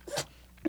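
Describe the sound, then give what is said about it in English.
A dog sneezes once, a quick breathy snort, followed moments later by a smaller nasal puff; fairly quiet, with no talking. “We have a dog friend. Don't worry about it.”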